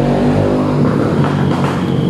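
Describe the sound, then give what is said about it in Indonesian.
A loud motorcycle exhaust revs, a continuous throaty engine roar with a steady harmonic drone that wavers slightly in pitch for about two seconds, with no voices. “Sorry ya ini untuk anak-anak zaman sekarang juga kalau pakai motor. Nah orang yang ngerti. Jangan kayak di MotoGP ya. Kenapa ya harus knalpotnya berisik gaya gaya biar gaya gaya beat suara kencang”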